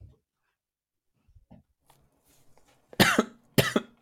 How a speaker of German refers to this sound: Kannst du, dich, kannst du dich muten, wenn du hustest? Nein, ich will das dokumentieren, wie schlimm ja, das aber wird.